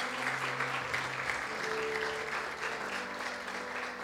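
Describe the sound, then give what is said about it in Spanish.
An audience applauds as an offering of applause to the word of God, steadily for about four seconds, a dense wash of clapping hands at a fairly even loudness, with a low sustained tone humming underneath. “Dar una ofrenda de palmas a la palabra de Dios.”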